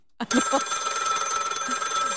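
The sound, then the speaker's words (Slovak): A more modern landline telephone with push-button dialing: its bell rings loudly and continuously after a brief click, a bright, steady metallic jangle sustained for about two seconds with no voices. “Potom to následné zvonenie.”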